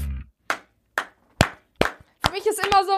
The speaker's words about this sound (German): egal, ich sitze immer so, ich denke mir so, boah, wie soll ich mich verbiegen, um zu klatschen?